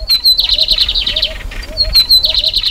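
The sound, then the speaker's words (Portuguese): A lined seedeater sings one of its two song dialects, a rapid, buzzy song of repeated high trills and chirps, clear, with softer lower notes looping underneath and faint background noise. “O bigodinha ele tem dois dialetos diferentes.”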